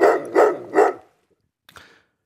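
Three loud dog barks come in quick succession, then a short pause and a fainter, softer bark or two near the end, as the dogs look expectantly at their owner and wag their tails. No one speaks.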